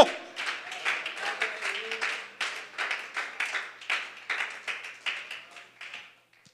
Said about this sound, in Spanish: Alguien aplaude al Dios de milagros. Alguien alaba al Todopoderoso conmigo.